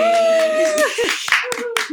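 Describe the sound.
A few sharp hand claps, irregular and fairly loud, come after a sustained voiced tone, with some speech-like sound mixed in between the claps.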